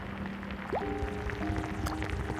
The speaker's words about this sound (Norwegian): Her har jeg en peterskål som vi skal se nærmere på. Oppi peterskålen min så svømmer 100 bakterier. I denne sprøyten har jeg en penicillinkur, så jeg drypper den rundt i skålen.